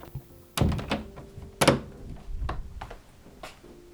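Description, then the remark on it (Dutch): A door thuds shut with a heavy, dull knock, followed by a second strong thump and a few softer knocks and rattles as it settles. “Ik doe wel even de deur dicht, want eh, we hebben bepaalde omstandigheden die we moeten houden.”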